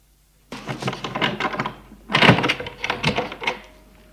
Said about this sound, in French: Une porte s'ouvre.